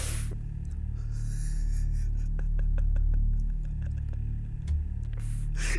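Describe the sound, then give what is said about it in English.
A woman bangs her head against a microphone: a run of soft knocks and taps over a low rumbling hum, with one slightly heavier thud near the end and no talking. “If you heard that thud, that was her banging her head against the microphone, by the way.”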